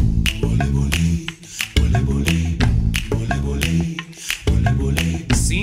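A pop song's instrumental opening plays loud and steady, with layered harmonic chords and crisp, snap-like percussive hits marking a regular beat, with no voices yet.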